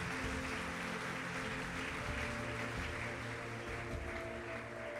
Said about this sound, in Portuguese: Você pode dar uma salva de palmas a Jesus por causa disso?